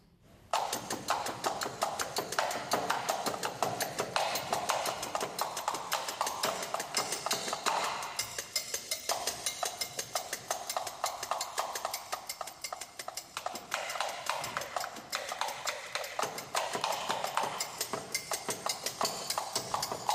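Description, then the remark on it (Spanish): A fragment of John Cage's Living Room Music, percussion played on household objects: busy, steady patterns of dry wooden knocks and taps overlap in quick, interlocking rhythms, fairly loud, with no voices throughout. “Bueno, pues vamos a escuchar un fragmento de la obra de John Cage de la que toma subtítulo este espectáculo, este Living Room Music.”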